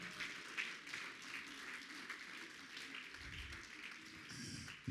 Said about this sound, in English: Somebody clap your hands and magnify him.